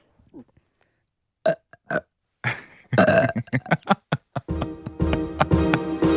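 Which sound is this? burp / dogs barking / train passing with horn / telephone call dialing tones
burp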